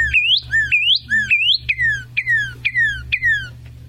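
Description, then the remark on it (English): A cardinal sings a loud, clear series of whistles: about four rising slurred notes followed by four sharp downslurred ones, repeated rhythmically over a low background hum, with no one talking. “They're just they get the loud, clear whistles. Just beautiful singers.”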